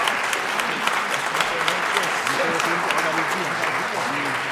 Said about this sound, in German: für die Gewaltigen in diesem Funkhaus, die vielleicht nur sagen, naja, da haben die Beifall gegeben, müssen wir das vielleicht formal machen.